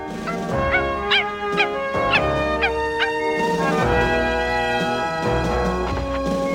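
Milou, Tintin's small dog, gives a quick series of high, sharp yaps as he walks on the Moon in a dramatization of Hergé's On a marché sur la Lune, over sustained orchestral music, then falls quiet while the music carries on.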